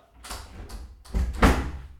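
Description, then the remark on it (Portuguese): A sticking office door is wrenched open with a scraping, juddering rasp and a heavy thud as it breaks free, with no talking over it. “vou ali à porta do escritório que está fechada e eu vou abrir e fechar para vocês verem o pânico que eu sofro.”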